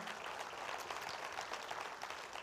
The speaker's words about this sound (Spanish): Si va el aplauso, dale fuerte el aplauso al Señor en esta mañana.